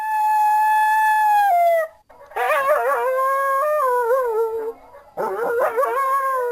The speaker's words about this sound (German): Diese Geräusche kenne ich, ne? Ja, aber von denen werde ich erst eher nachts geweckt. Morgens tun die natürlich gar nichts. Also heulende Kojoten waren das.